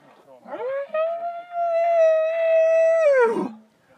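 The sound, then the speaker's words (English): A hunter imitates a bull elk challenge bugle to provoke a bull elk: one loud, sustained high whistling call that sweeps upward, holds steady for about three seconds, then drops away abruptly. “So I just let out the loudest, meanest challenge bugle, and as I'm chuckling, I just hear.”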